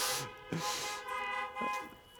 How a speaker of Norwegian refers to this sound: Dere får gi et tut til henne, så hun får den følelsen av å bli tatt imot med et tut.